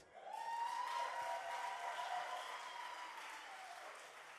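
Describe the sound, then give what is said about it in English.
A crowd of women claps their hands to the Lord in worship, a dense, steady burst that holds for several seconds and fades slightly at the end, with faint voices calling out underneath. “Sisters, clap your hands to the Lord.”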